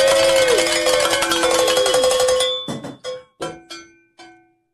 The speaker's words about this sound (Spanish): si miramos para arriba, es que tenemos que sonar las campanas, porque sí hicimos nuestra meta.